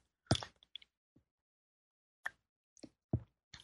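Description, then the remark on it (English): Quiet slurping sips of Amazon rainforest tea from a cup with small wet plops and a soft clink, several short bursts separated by pauses of silence. “I'm going to take a sip of my yummy tea here.”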